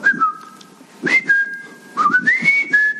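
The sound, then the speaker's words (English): A person whistles three clear, sustained tones in short bursts, each sliding up or down in pitch, fairly loud with no talking, whistling at a man coming up a mountain to get his attention. “so I see this guy coming up the hill, so I so I start whistling at him.”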